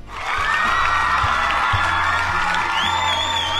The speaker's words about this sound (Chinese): 好像今天欢呼这个特效放的特别特别多呀。